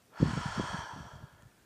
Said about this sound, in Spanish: Inspira. Expira.